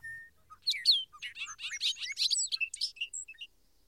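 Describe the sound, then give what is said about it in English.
A rapid run of high, thin chirps and twittering notes from migrating birds calling at night as they fly over the city pours out for about three seconds, clear, with no voices or other sounds around it. “I am first advised of their return by hearing their calls at night as they fly over the city.”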